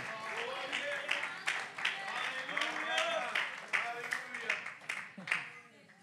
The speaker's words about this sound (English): I need you to help me worship right here. Come on, clap your hands and worship with me a little bit. Uh, come on, praise Him with me.